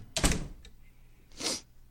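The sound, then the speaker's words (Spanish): A door is shut with a solid thump, a faint click follows, then a second heavier clunk as it is latched, with no one talking. “Tráncate la puerta, mamón.”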